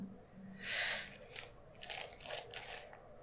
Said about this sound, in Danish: Og hvis der er lidt lyd på, så er det på grund af, at jeg skal pusse næse og behøver at finde et papir.